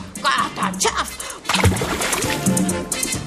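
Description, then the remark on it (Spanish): A loud splash as a little monkey is thrown into a river by a crocodile's strong tail swipe, followed by sloshing and churning water that continues to the end. “Piensa ya tarde, justo cuando el cocodrilo ojeroso da un fuerte coletazo y arroja al monito revoltoso al agua.”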